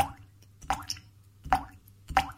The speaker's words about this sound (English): Water. Great in a glass, not so great in your stuffing.